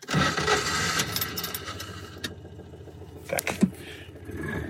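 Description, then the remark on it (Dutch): A classic car engine starts and rumbles loudly, then settles into a steady idle, with a few sharp mechanical clicks and clunks along the way. No one speaks. “Nou, het iconische geluid als je hem start.”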